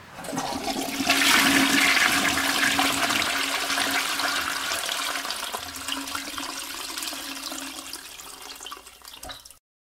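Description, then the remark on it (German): A toilet flushes with a strong, rushing surge of water that peaks early, then settles into a steady gurgling refill before cutting off abruptly near the end. No one speaks. “Ich spiele dir Geräusche von Toiletten vor.”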